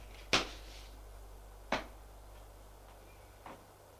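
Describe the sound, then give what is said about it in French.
A bedroom door shuts with a sharp clack, followed by two softer knocks spaced a couple of seconds apart, each quieter than the last, over a low steady hum. “Il entre dans la chambre, ferme la porte, s'approche du lit.”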